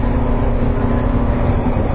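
Inside a moving JR 415 series electric train on the Nippo Line between Kokura and Nakatsu, a steady, loud low rumble with a constant motor hum fills the cabin, continuous and even throughout, with no voices.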